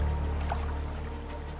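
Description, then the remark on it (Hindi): Small waves of the Ganges river lap gently and continuously, a soft watery wash over a low steady rumble, with no one speaking. “कुछ देर छटपटाने के बाद अचानक जैसे सब कुछ शांत हो गया कल कल करके नदी की छोटी छोटी लहरें उसको संगीत की तरह सुनाई देने लगी”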